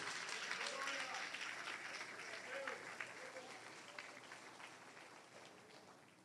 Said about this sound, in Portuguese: Ah, aplauda o Senhor Jesus, vai! Merece!